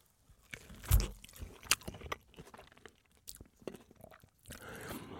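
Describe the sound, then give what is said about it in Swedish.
A wet bite into a juicy peach with a sharp crunch near the start, followed by slurpy, irregular chewing and small smacking sounds for several seconds. “Jag ska bara ta en tugga persika till.”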